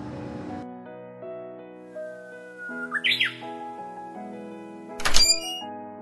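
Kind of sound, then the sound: bird, japanese bush warbler singing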